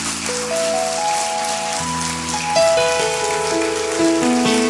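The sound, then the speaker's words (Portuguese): A church audience applauds the Lord steadily, a dense crackling patter that holds at an even level throughout, while sustained keyboard chords shift slowly beneath it. No one speaks. “Você vai dar uma oferta, pode aplaudir ao Senhor.”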